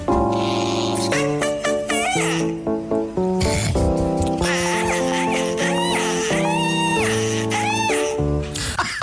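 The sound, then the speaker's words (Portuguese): Chirpy, squeaky parakeet calls ring out loud, woven into a steady piano accompaniment by a Japanese musician that plays continuously beneath them throughout the short musical piece built from the parakeet's sound. “nós ouvimos tantas vezes esta pequena peça musical para periquito e piano”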